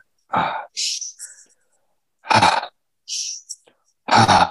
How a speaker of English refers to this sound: make that a conscious breath in through the nose and just let it go. So imagine yourself on a wheel. So as you're breathing in, you're going up the wheel. As you get to the top of the wheel, you're just letting go.